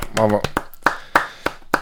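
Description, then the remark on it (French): A short applause jingle: a brief voice at the start, then about six crisp, separate hand claps spaced unevenly over a second and a half. “Euh, euh, jingle applaudissements.”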